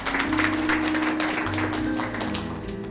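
An audience breaks into sustained applause given to God, a dense wash of clapping holding steady for a few seconds over a low musical hum.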